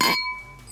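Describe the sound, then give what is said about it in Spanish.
Glasses clink together once in a toast, a bright, sharp tap followed by a clear ringing tone that lingers and slowly fades. No voices, only the distinct chime. “Bueno, pues salud por el arte de ser frágil pero invencible.”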